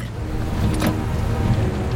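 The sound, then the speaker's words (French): A car window slides open with a short mechanical whir over the steady low rumble of an idling engine, as a driver stopped at a red light opens the window. “à un feu rouge, ouvre sa fenêtre et, d'un geste, lance son paquet dans la fenêtre ouverte de la voiture qui stationne à côté, conduite bien sûr par un agent de la CIA.”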